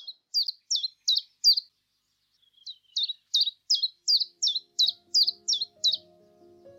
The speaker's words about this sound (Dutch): Hoor je dat? Mijn man steekt een vinger in de lucht en kijkt schuin omhoog. Ik weet het. Hij hoort weer eens de tjiftjaf en ik hoor hem niet.